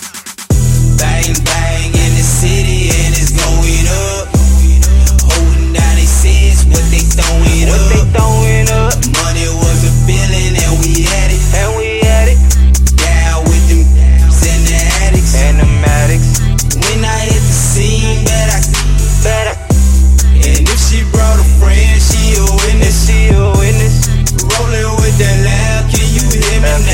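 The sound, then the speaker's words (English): A rap track plays loudly and continuously on the radio, driven by a heavy, booming bassline and a steady, looping beat with layered vocals and synths over it. “Cause this is the joint that you're really pushing right here on K100 Radio live”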